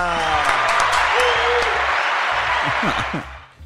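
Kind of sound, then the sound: human body sound, hand clapping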